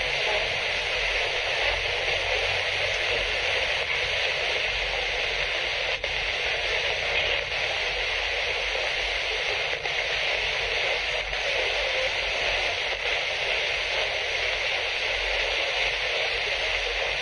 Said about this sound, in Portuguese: Estão falando muita coisa na chiado. Frases inteiras no chiado.